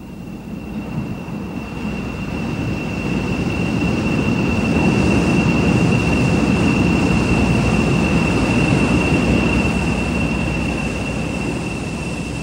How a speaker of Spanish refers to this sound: En medio de otra multitud, el tren del Alba llegó a Mar del Plata a las 6 y 30 de la mañana.